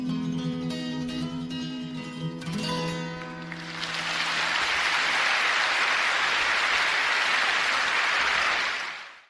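A held musical chord rings out and fades, then a concert audience breaks into loud, steady applause that continues dense and unbroken until the end.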